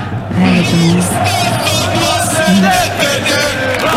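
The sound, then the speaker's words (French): A large stadium crowd of Lyon football supporters at a Saint-Étienne versus Lyon match sings and chants together, with everyone, even children, singing. It is a loud, steady wall of many voices with rising and falling tones that carries on without pause. “Puis en plus, il y a tout le monde qui chante là, même les gamins.”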